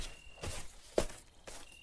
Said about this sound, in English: Then I hear footsteps approaching me, faster and faster.